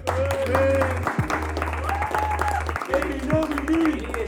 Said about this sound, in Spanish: Un aplauso para el presentador.